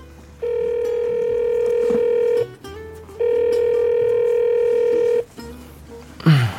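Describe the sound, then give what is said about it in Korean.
A phone ringback tone of a call to a boyfriend, placed from a KTX train on the way back from Busan, sounds twice, each a steady two-second electronic ring separated by a short pause, clear, followed by a brief rustle at the end. “KTX 타고 오는 길에 너무 피곤해서 남자친구한테 전화를 했어요.”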